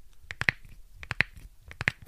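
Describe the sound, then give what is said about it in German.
Crisp rustling and crinkling right into the microphone, coming in three short bursts of sharp crackles at a steady rhythm, with quiet gaps between. No one speaks. “Ja, wenn die da so ins Mikrofon so irgendwie rascheln und oh, das macht mich irre.”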